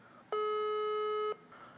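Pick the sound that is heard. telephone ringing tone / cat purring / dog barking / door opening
telephone ringing tone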